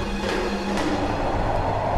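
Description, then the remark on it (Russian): Steady rumbling of a train rolling along the tracks of Russia's first railway, Saint Petersburg to Tsarskoye Selo, a dense, continuous mechanical roar with a few faint clunks, with no one talking. “на первой железной дороге России Санкт-Петербург, Царское село.”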